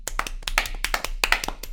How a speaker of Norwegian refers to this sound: Du trenger å få litt fame, du også. Vi klapper litt